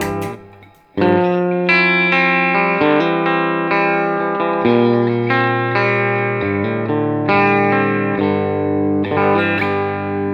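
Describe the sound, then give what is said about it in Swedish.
An electric guitar plays a series of loud, ringing chords with a fairly plain tone, its effects pedal switched off, each chord sustaining into the next over about ten seconds, with no voices. “det som är coolt med den här pedalen är ju att när man håller på med den igång så, så tappar man till slut, det hörs inget, man stänger av den så upptäcker man oj, den gör ändå en hel del.”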